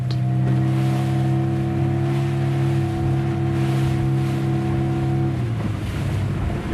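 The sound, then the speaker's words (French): A fishing boat's engine drones steadily with a low harmonic hum over wind and sea wash while out at sea on a fishing trip, then cuts out near the end, leaving gusty wind and water noise. No one speaks. “on est sur ton bateau, on est parti en pêche.”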